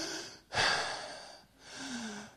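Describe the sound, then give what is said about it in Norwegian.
A person imitates heavy breathing: a loud, rough inhale followed by a long, audible exhale, two labored breaths in a slow rhythm with no talking. “Og før du vet ordet av det, så er det akkurat som du på kjennende puster tyngre.”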